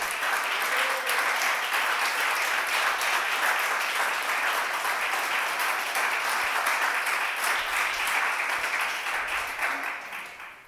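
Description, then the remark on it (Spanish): An audience applauds the Lord together in a dense, steady wash of clapping that holds at an even loudness for about ten seconds before starting to fade, with no talking over it. “Dele un aplauso al Señor que Él es bueno.”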